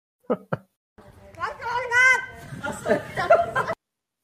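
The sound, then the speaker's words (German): A crow in Germany mimics human speech, saying "Was soll das?": two short, sharp clicks, then a raspy, voice-like phrase of a few syllables lasting about three seconds, with no other sounds around it. “Die Krähe sagt, Was soll das?”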